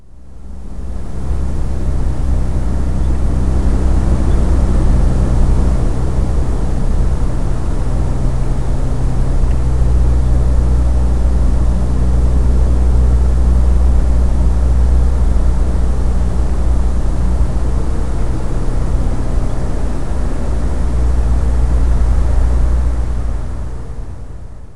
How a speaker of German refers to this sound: Abwechselnd schaltet der Schweizer Komponist Jörg Frey in L'âme et sans retenue Feldaufnahmen aus Berlin im Jahr 1997 und Stille gegeneinander, fünf Stunden lang